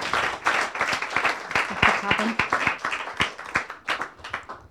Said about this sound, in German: Gut, dann vielen Dank äh, für den spannenden Vortrag. Dann darf ich schon mal um Applaus bitten. Genau, vielen Dank.